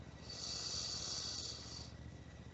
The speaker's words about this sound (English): And taking another nice deep inhale, breathing in through your nostrils, filling your belly.